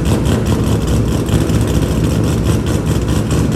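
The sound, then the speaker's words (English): A car engine revs loudly and continuously, a dense, rumbling roar with steady low-end throb that stays constant throughout, with no voices over it. “Some guy fucking boring his fucking engine.”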